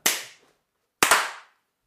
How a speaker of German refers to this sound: Hey, der eine war synchron, wir waren ja, ja fast synchron. Waren kein dritten, es waren zwei Klatscher. Ganz klar. Der eine war ein bisschen zu früh und die anderen waren genau richtig tight.